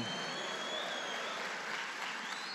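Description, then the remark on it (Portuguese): An audience applauds steadily, a dense wash of many hands clapping at an even level throughout, with no voices standing out above it. “Dá um aplauso aí, aleluia.”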